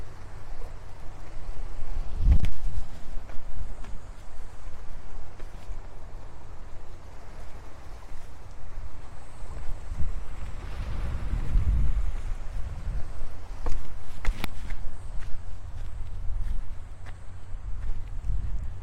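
Morning ocean waves at the seaside in Hayama wash in as a steady rushing hiss with a low rumble, swelling now and then, along with gusts of wind and a few faint footstep-like knocks. No one speaks.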